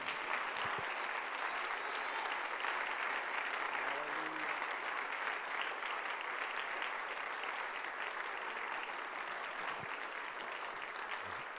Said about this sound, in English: Can we just clap our hands to the Lord before we're seated?